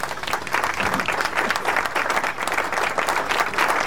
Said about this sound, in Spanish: Ahí va, a ellos también. Va el aplauso, nuestro agradecimiento.